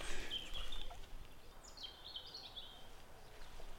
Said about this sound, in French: Voilà, je t'ai laissé écouter cet oiseau, Sayan, juste pour toi.